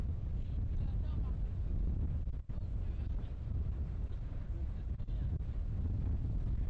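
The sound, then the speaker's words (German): A boat moves across open water, its steady low rumble mixed with heavy wind buffeting the microphone. The loud, continuous roar briefly drops out once partway through. “Erst zwei Stunden mit dem Boot raus, dann zu Fuß weitergehen.”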